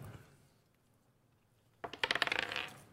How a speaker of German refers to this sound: Äh, würfel mal auf Wahrnehmung.